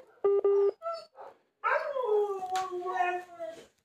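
Dogs bark in a couple of quick, sharp yaps, then break into a long, wavering howl, joined by whines and yelps as the howling rises and falls.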